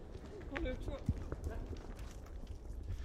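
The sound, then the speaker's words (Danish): Quick, steady footsteps of a man running on, thudding at a moderate level and fading slightly as they move off, with a brief murmur of voices early on. “Manden løber videre.”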